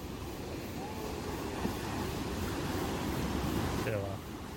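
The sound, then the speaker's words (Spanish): A steady, broad rush of ocean surf washes continuously as the tide rises strongly, with faint voices murmuring beneath it and the roar easing slightly near the end. “Está subiendo mucho la marea.”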